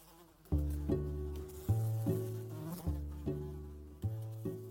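insect, fly buzzing

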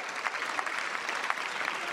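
crowd, applause

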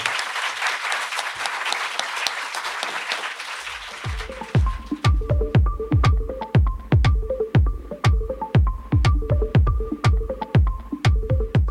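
crowd, audience applause

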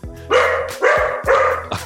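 animal, dogs barking

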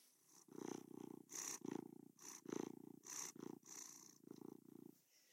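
animal, cat purring

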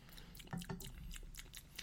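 food or drink, sipping a drink

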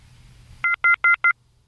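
signal or alarm, telephone line dialing tones

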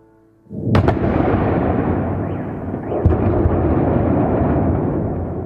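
impact, explosions

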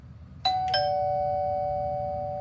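household object, doorbell ringing

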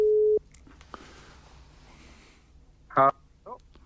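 signal or alarm, telephone ringing tone

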